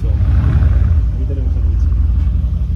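The heavy engine of a very dirty Mercedes G-Wagon SUV rumbles, a steady low growl with slight revving as it rolls in and arrives from a trip.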